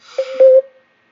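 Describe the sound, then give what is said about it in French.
A Skype call beeping: a brief run of steady, mid-pitched electronic tones blending into one another for about half a second, moderately loud, with no voices. “Petit, doute, euh, mon Skype, il fait des, des bips.”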